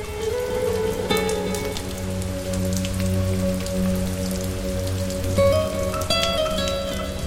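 Steady rain patters on a hard surface at night, with scattered louder drops breaking through a continuous hiss. A low, sustained droning hum runs underneath throughout, and no one speaks.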